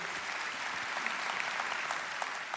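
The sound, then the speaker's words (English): A church audience claps for the pastor steadily, a dense wash of many hands with a few sharper individual claps standing out, sustained at an even level throughout. “Yeah, I think clapping for him feels good.”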